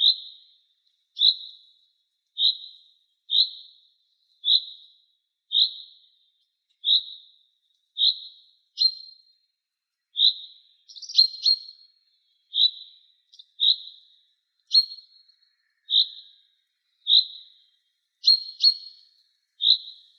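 A great tit sings a steady, repeated series of bright, high two-note phrases, clear, with no talking and a silent background between notes.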